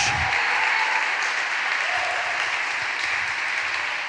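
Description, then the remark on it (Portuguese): A crowd applauds steadily in praise of God, a dense wash of many hands clapping at once that holds a fairly loud, even level for the whole stretch, with no clear voices standing out. “Pode aplaudir, querido. Glória a Deus!”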